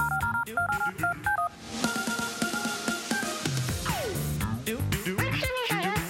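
A phone number is punched in as a quick run of clear touch-tone beeps to call Stefan Stassen, followed by a dense wash of electronic tones and sweeping sounds.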